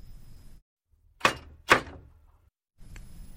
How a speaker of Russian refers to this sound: Дойдя наконец до пункта назначения, герой постучал в дверь.